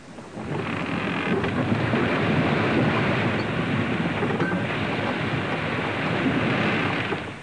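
A great storm stirred up by a strong wind on the sea around a ship bound for Tarshish, with thunder: a dense, steady roar of wind and rain layered over deep rumbling, rising in at the start and easing off at the end, with no voices.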